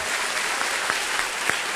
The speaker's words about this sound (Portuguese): Olha como Deus vê a morte, não vai aplaudir a Deus, não? Não vai aplaudir direito, não?